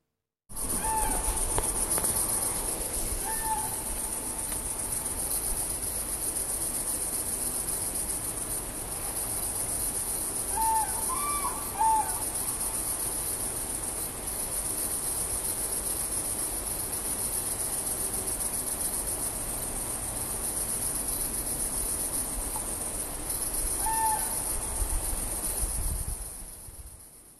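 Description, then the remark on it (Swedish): A wart-biter bush cricket chirps in a steady, unbroken high buzz that runs the whole way through, with a few brief, faint calls of a crane in the background now and then. “väl vårtbitare, var det så?”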